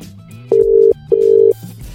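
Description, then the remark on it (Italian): The ringback tone of an outgoing phone call to London: a clear double burst of steady, mid-pitched tone, two short rings separated by a brief pause, over a faint low background hum. “Squilla diverso a Londra al telefono.”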